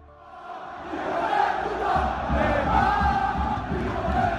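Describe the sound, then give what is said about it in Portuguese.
A large stadium crowd of fans chants and jeers at Neymar in unison, including insults, during Paris's 3-0 win over Nîmes; a dense roar of many voices swells in the first second and then holds loud and steady with rhythmic low thumps underneath. “Neymar foi muito hostilizado pela torcida, inclusive com xingamentos.”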